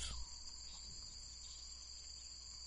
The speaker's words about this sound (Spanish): Los ruidos de la selva vienen de los árboles y del suelo